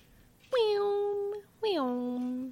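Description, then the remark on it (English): A voice imitates two lightsaber swings: a pair of loud, drawn-out buzzing hums, each starting high and sliding down in pitch, separated by a brief pause. “That was my lightsaber noise.”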